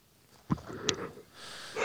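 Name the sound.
yawn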